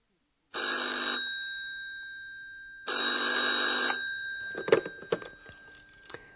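An old-style telephone bell at the reception of the Hotel Europa rings twice in loud, buzzing bursts with a lingering hum between them, then the receiver is picked up with a few clattering clicks.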